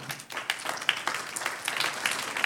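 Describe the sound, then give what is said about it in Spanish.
A crowd applauds the Lord during a sermon, many hands clapping in a dense, continuous patter at an even moderate loudness, with a few sharper claps standing out and no speech over it. “Un aplauso al Señor.”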